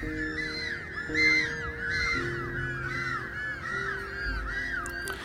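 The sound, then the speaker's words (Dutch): A chorus of harsh, braying, donkey-like penguin calls repeats in quick overlapping bursts, steady and moderately loud with a low rumbling background. “Ook een van de eigenaardige dingen is dat ze balken als ezels. Ze maken een heel eigenaardig geluid.”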